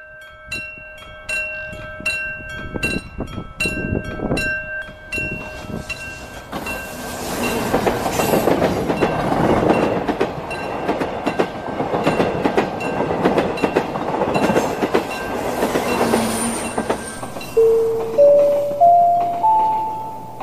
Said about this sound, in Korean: 손님 여러분 안녕하십니까? 이 열차는 부산발 서울행 새마을호 제30열차입니다. 종착역인 서울역에는 8시 10분에 도착하겠습니다.